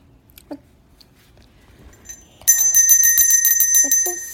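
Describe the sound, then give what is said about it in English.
After a quiet opening with a few faint background sounds, a bright, high-pitched bell chimes once loudly and rings on, its clear tone sustaining to the end, signalling that it is time to turn the page. “So, whenever you hear the ringing of the bell, then it's time to turn the page.”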